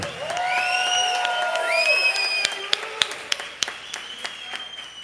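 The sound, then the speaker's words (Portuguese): An audience at an evening celebration of their senior pastor's birthday shouts and whoops loudly with high rising and sustained cries, then the cheering fades into scattered sharp claps that continue sparsely to the end. “Não, mas grita mesmo, se é para gritar.”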